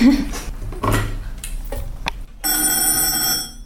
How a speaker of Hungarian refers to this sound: És most pont csöng a telefon, ezt fel kell venned? Igen.